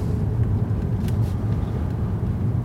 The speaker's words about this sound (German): Äh, jetzt muss ich trotzdem mein Auto in die Einfahrt stellen, weil äh, die, weil die Nachbarn an der Straße stehen.